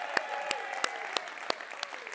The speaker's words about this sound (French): Toute l'équipe de chez Valspec qui font un job incroyable. Grosse main d'applaudissements.